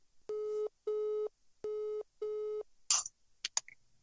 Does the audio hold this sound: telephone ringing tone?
yes